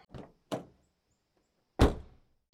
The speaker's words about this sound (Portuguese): Dirigindo. Estou abrindo a porta.